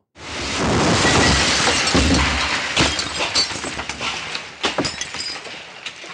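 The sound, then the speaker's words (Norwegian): A loud, powerful explosion bursts in the middle of the night among terraced houses in Hesselby, blowing out windows and destroying facades, followed by a prolonged crash of shattering glass and debris, with sharp tinkling fragments scattering and clattering down over several seconds before tapering off. “En kraftig eksplosjon blåser ut vinduer og ødelegger fasader.”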